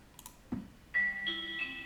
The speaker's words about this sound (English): Um, so those are NBC chimes. That is the sound itself.